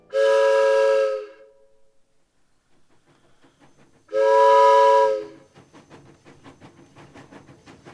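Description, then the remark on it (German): Two long, loud blasts of a train horn on a wartime train heading east toward the front, each lasting about a second, separated by a pause, followed by the rhythmic clatter of rolling railcars on the track. “All diese Signaltöne. Unser Nebelhorn.”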